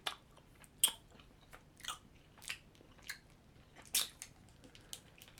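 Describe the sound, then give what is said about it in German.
Crisp bites into a Dumble chocolate candy followed by irregular crunchy, slightly wet chewing sounds, with a few sharper cracks standing out. No one talks. “Ähm, das ist ein Schokoladenbonbon. Ich beiß mal rein.”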